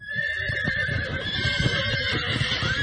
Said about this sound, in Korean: 그런데 그때였어요. 달그락거리는 요란한 말발굽 소리와 함께 험상궂게 생긴 강도들이 일행에게 달려드는 것이 아니겠어요?